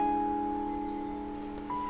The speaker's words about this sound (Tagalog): Malakas na tunog ng alarm clock ni Art.